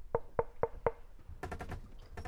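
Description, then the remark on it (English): Four evenly spaced, sharp knocks on the wooden door of a prince's chamber, followed by a quick flurry of softer, scuffling taps and rustling movement. “he reached the prince's chamber and knocked. Tamir, Tamir, are you okay? He kept knocking.”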